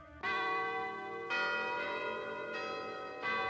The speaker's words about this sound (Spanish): En el reloj del viejo hospital sonaron las doce campanadas, anunciando el comienzo de una noche más.